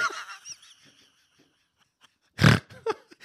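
A single loud, rough snoring snort bursts out, followed by a couple of smaller snuffling snorts. Some brief nasal, honking vocal sounds come earlier, then a short quiet gap.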